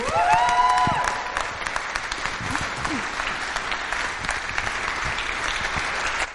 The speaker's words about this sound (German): Also gebt mal dem Gastgeberteam mal einen richtigen Applaus hier.